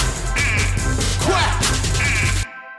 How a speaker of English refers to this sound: Come on. I can't hear you quacking, y'all. Come on, quack, quack, quack, quack.